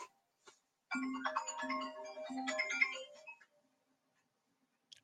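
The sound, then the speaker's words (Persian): A phone ringtone plays a short, bright electronic melody for about two and a half seconds, fairly loud, then cuts off as the call is cut off, leaving near silence with a couple of faint clicks. “اگه نیاز جواب بدین راحت باشین من میتونم چیزی پخش کنم نه من این این, تلفن قطعش کردم”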